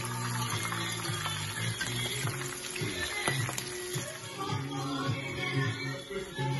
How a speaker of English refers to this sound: Shrimp takes about literally maybe three minutes on each side. You hear it sizzle? If you don't hear it sizzle, something's wrong.